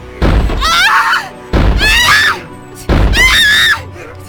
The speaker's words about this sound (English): The assailant grabs Cynewyn's sewing hand, places it on a block, and smashes it with a mallet.